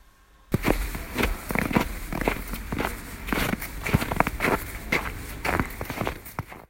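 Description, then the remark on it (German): Steady footsteps walking outdoors through the village of Westendorf, clearly audible, with a regular rhythm of crunchy steps over a faint background hiss. No talking. “Gut. Gehen wir mal raus.”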